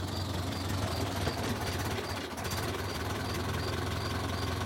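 A car engine idles steadily with a low, throbbing rumble and a faint mechanical rattle, holding an even loudness except for a brief dip midway, as a car stopped on the street. No one speaks.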